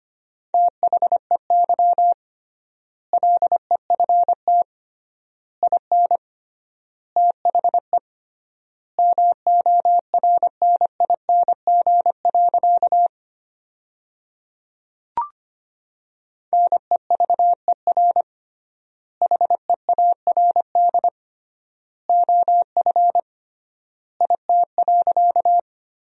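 Morse code sentences built from the 400 most common words, sent at 25 words per minute with triple word spacing as a steady, pure tone, rapid dots and dashes grouped into words separated by long gaps, clear with no talking.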